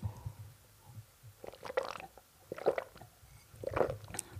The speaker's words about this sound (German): Jetzt muss ich kurz einen Schluck Wasser nehmen.